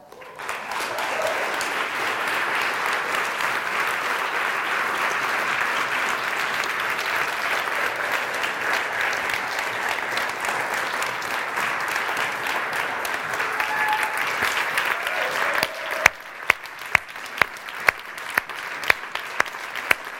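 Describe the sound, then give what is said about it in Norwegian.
A crowd applauds steadily for about fifteen seconds as a group of young people is clapped forward to the front, a dense even wash of clapping, which then thins out into a handful of scattered, separate claps. “Kan dere klappe de fram?”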